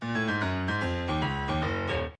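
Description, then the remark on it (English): An isolated bass guitar plays a short run of deep, sustained notes that step between pitches, loud, with no other instruments or voices. “Bass.”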